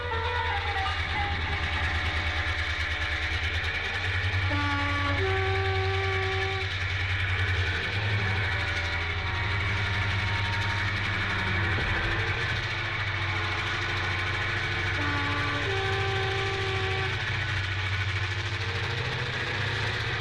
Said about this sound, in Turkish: Karşımdaki peronda bir tren duruyor Çok yavaş girdi gara Lambaları sönük ve boş bir tren